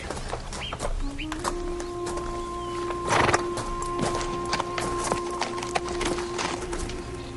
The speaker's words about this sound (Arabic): أما يلزمنا نربطوا الخيل وننزلوا باش نثبتوا في الشجرة اللي نابتة وسط الحجرة